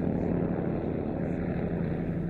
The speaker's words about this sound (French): Il fallait que l'avion un bimoteur à hélice vole assez bas et assez lentement. Il fallait qu'il suive un trajet assez rectiligne en balayant progressivement la région étudiée par bandes parallèles.